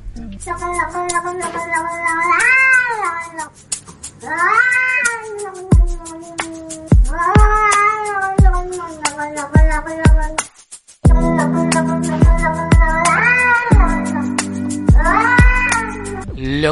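A scared cat's strange, fearful meow, made as a person approaches it with a hand, is chopped and pitched into a melody over a steady beat and bass, the yowls repeating in rising and falling phrases throughout a loud, bouncy song.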